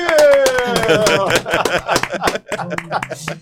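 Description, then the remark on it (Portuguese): Loud, rapid hand clapping to applaud a goal runs through the whole stretch, sharp uneven slaps overlapping a voice that shouts or sings at the start, then fainter talking underneath. “Ah, eu tenho que levantar para aplaudir, Brasil!”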